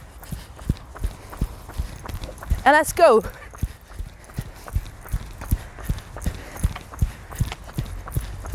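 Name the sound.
running footsteps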